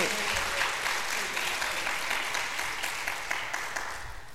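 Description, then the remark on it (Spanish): Sustained applause for God from an audience, a dense wash of many hands clapping at a steady loud level for several seconds, tapering slightly toward the end. “Dele un aplauso fuerte a Dios porque Dios es grande.”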